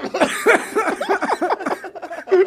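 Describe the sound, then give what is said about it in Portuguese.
Monark's laughter breaks into a run of rough coughs, several bursts in quick succession with short breaths between them, fairly loud and with no speech over it. “Não faz o Monark rir que ele tosse, cara.”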